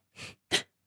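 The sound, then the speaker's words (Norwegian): A single sneeze: a short, breathy intake of air, a brief pause, then a sharp explosive burst that quickly fades. No one speaks. “Man kan trekke pusten, og så tenker man Nei, ikke ennå, men nå.”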